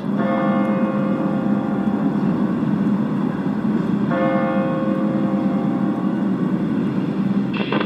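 The great bell of the Michel church tolls the hour at 2 pm, announcing the number of hours at the end of a motorcycle church service: slow, deep strikes about four seconds apart, each ringing out in a long, shimmering decay over a steady background rumble of traffic or wind.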